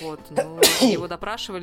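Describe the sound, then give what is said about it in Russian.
A single loud sneeze bursts out in the middle of conversation, with a man talking just before and after it. “Прошу прощения. Будь здоров.”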